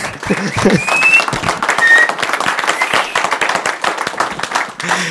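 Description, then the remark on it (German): An audience at a church service applauds to welcome people watching from home, a dense steady patter of many hands clapping at once, loud and continuous throughout, with a few brief whistle-like tones and murmuring voices mixed in. “Wir sind heute viel weniger, aber hoffentlich war der Applaus dafür umso stärker.”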